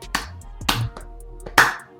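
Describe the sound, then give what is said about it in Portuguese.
A person claps their hands in a slow, uneven rhythm: three sharp, loud claps with a softer one in between. No one speaks. “cai da cadeira, a gente tem que levantar e bater palma.”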